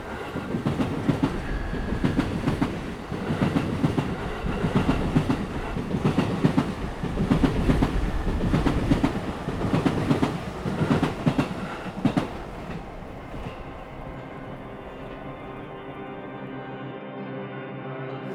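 A train rolls past on the rails with a steady, rhythmic clickety-clack of wheels over track joints, loud, then fades away, leaving a low lingering rumble.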